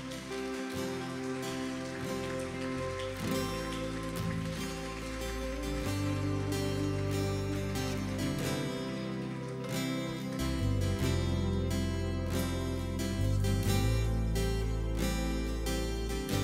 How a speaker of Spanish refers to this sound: ¿Quieres ponerte de pie y darle un aplauso fuerte a Dios? Dáselo con todo el corazón tu aplauso.